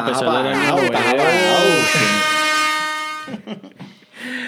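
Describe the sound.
A loud, blaring air horn sound effect sustains for about three seconds with a harsh, buzzing tone, then cuts off, followed by a few brief bursts of talk.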